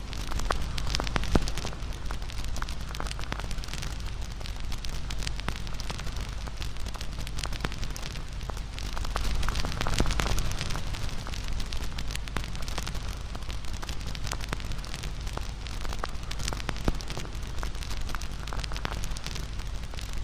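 A steady fire burns, its firewood crackling and popping in frequent irregular snaps over a soft continuous rush, with no voices throughout.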